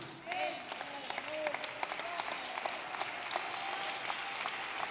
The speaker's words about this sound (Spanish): Dale el aplauso fuerte. Ese aplauso me le está faltando.